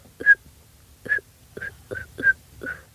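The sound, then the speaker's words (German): Six short, breathy whistle attempts by a person trying to whistle, in an uneven rhythm, each a thin, faint high tone riding on a puff of air, quiet with no talking. “Auch wenn nur so ein ganz kleiner Ton rauskommt, so.”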